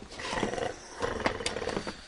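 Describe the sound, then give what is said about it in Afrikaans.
An old man in the police cell next door snores loudly in rough, rumbling bursts, two long ragged rasping breaths with a gravelly, growl-like texture and no talking. “Hy snork so 'n ou diesel trekker op 'n koue wintersoggend.”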